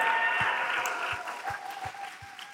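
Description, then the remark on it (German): A crowd applauds God steadily, a dense wash of clapping that holds at a moderate level, with soft low thumps recurring about every half second underneath. No one speaks. “Let's give big applause one more time to God.”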